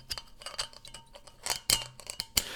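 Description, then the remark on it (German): A quick, irregular run of sharp metallic clinks and clicks, imitating a man trying to open his beer bottle, like metal tapping against a glass bottle, fairly crisp, with no talking. “und versucht halt sein Bierflasch aufzumachen. Und, und hat er wirklich so Klang, Klang, einfach so fünf Minuten lang gehört, wie er versucht, die scheiß Bierflasche aufzumachen.”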